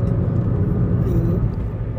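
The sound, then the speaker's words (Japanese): Steady low rumble of road noise inside a car driving back from a business trip, a constant dull roar that stays even throughout with no other distinct sounds. “出張先から戻る車の中で収録してます”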